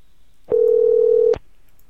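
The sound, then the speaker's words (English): A single steady telephone tone sounds for just under a second as a caller tries to call someone back, a clean low hum with abrupt start and stop, heard alone with no voices. “Let's see if I can call her back.”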